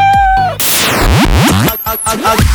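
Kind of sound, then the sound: animal, cat meowing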